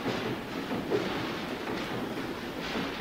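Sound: train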